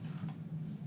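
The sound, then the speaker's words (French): A steady, low droning rumble of an airplane passing overhead, heard from inside a living room, continuous and even for the whole moment, with a faint airy hiss above the deep hum and no voices. “Je me disais, putain, on a un putain de bruit, on a un avion.”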